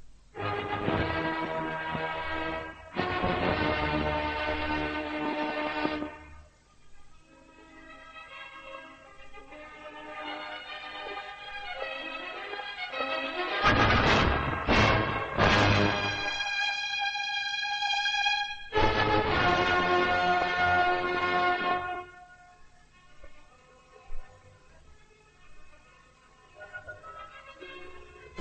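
A full orchestra plays the opening of Beethoven's Fifth Symphony: forceful repeated chords broken by long held notes and quieter passages in between, loud with no voices.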